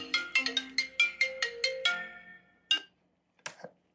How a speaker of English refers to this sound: oh, hold on, it's my phone.